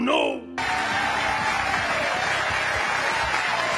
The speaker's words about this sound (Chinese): 喂，你们到底在吼什么呀？